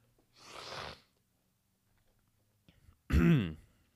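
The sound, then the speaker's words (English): Someone clears their throat twice: first a breathy, rasping hack, then after a pause a louder, voiced guttural clearing that ends abruptly. No speech. “For example, I'm about to clear myself right now.”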